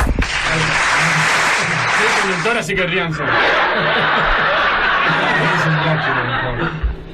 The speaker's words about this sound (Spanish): Un aplauso, por favor.